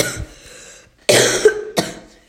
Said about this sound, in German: Entschuldigung, dass ich noch ein bisschen hust. Ich bin halt auch noch ein bisschen verkühlt.